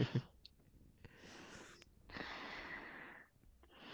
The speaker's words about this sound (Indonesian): nah ini napas-napas yang kayak gitu loh. tersenggal oh iya tersenggal senggal